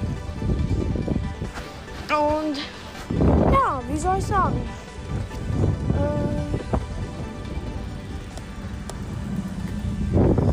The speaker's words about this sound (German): Und falls ihr fragt, was das für ein Wind ist, ich bin gerade unterwegs.